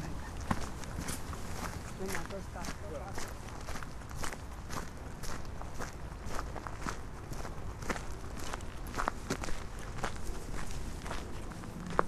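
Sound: footsteps walking outdoors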